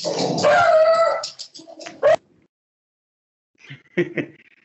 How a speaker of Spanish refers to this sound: Disculpa, mis perros.